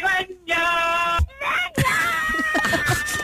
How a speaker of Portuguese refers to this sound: Olha, até se me ouvir eh, novamente os gritos do homem que mordeu o cão.